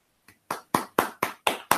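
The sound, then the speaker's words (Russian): Six or so sharp hand claps in a steady, quick rhythm, fairly loud, like one person applauding briefly, with no voices. “Просто аплодисменты, Женя просто красавчик, я считаю.”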